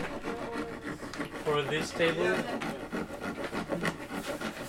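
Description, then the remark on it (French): A cloth rubs linseed oil onto wooden pallet benches in short, repeated strokes, a soft scuffing texture that continues throughout while voices talk in the background. “on est en train d'ajouter de l'huile de lin sur euh, ces palettes qui sont déjà”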